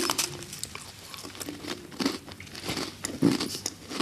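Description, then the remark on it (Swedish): Crisp biting and crunching of a filled sandwich biscuit taken from a bowl, with repeated sharp crackly bursts of chewing over about four seconds and no talking. “Eh, du har eh, kex i den andra skålen också, en annan sort.”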